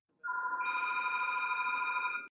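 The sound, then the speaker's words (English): A phone ringtone plays a steady, bright electronic tone that swells with extra high notes partway through, fairly loud for a couple of seconds before cutting off abruptly. “I, I would like to talk about your ringtone.”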